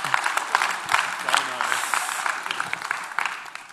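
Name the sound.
audience applause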